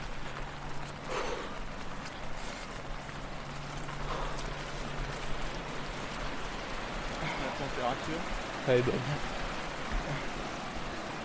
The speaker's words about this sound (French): Ah, c'est juste la, pluie, c'est un peu déprimant, mais bon.